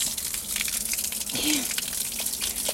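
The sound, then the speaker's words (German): Steady splashing of feet in hot pool water by people sitting at the pool's edge, with irregular watery slaps over a constant wash of water noise. “Das Patschen geht gut.”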